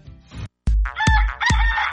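rooster crowing

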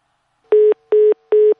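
telephone tone

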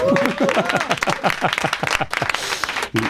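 applause

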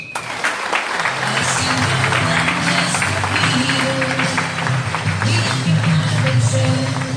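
loud applause

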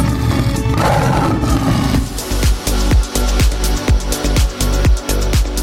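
lion roaring

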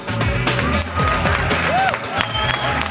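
audience applause

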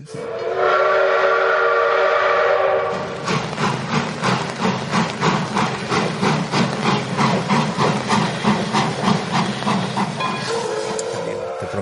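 train with whistle

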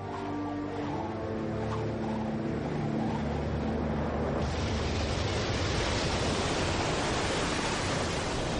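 stormy sea waves crashing

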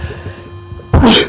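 sneeze

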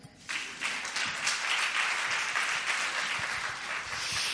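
audience applause

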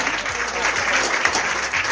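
loud audience applause

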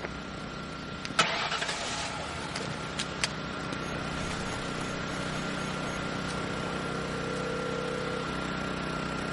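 car engine starting

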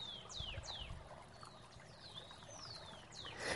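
water flowing

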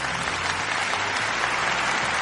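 applause

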